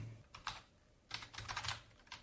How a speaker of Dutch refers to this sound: dus ik heb uw mailadres online gevonden en ik ga ze nu een mailtje typen. Niet gemakkelijk.